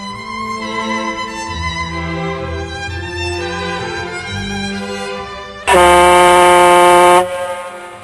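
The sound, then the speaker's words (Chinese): A factory whistle sounds for the second time over a steady droning tone, then bursts into a loud, piercing blast for about a second and a half before cutting back. “第二次的汽笛声又响了。”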